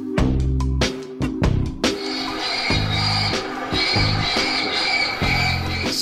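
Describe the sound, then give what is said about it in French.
Loud electronic bird-deterrent system blaring synthetic raptor calls to scare birds away so a helicopter can operate safely, harsh screeching squawks that start in short bursts and then merge into a continuous shrill, buzzing cry. No one speaks. “c'est un système pour euh, effrayer les oiseaux qui simule euh, des bruits de rapaces en fait, et donc qui vont faire peur aux oiseaux.”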